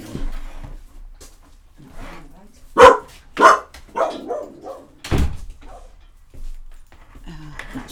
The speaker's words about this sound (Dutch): Ehm, oh, mijn hond gaat even blaffen. Oh, ik maak even de deur voor hem open. Dan kan hij stoppen met blaffen.